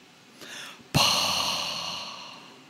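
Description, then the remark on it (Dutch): A voice imitates raspy respirator breathing: a brief, softer hissing intake, then one loud, drawn-out rasping breath that slowly fades, with no talking. “We bleven echt voor een astma-hoes zitten, ja.”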